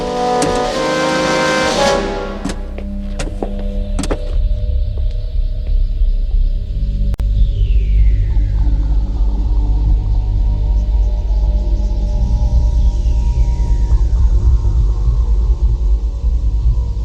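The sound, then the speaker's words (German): A car starts up and drives off, heading back to headquarters. A few sharp clicks and thumps come first, then a loud, steady low engine rumble with a whine that rises twice as it picks up speed. “Wir fahren zurück in unsere Zentrale und ermitteln, welcher Anwalt sich seiner Sache angenommen hat.”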